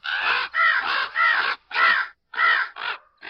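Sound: crow cawing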